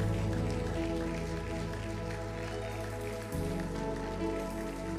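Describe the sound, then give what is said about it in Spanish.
A standing church audience applauds the Lord loudly and continuously, a dense crackling wash of clapping that holds steady for several seconds over sustained, droning musical tones, with no one speaking. “Yo te quiero invitar en esta hora que te pongas de pie y le des un aplauso al Señor.”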